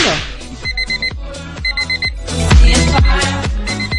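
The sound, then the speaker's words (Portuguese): A wake-up alarm sound effect, an 8-second audio clip played to wake people up, plays loudly: bursts of rapid high-pitched beeps repeat in groups over a pounding, bass-heavy musical beat, with no one speaking. “É, é só pra acordar.”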